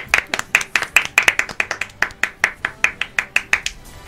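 Steady hand clapping from a small group, a quick run of sharp claps in an even rhythm lasting several seconds with no talking, given as applause for a show segment.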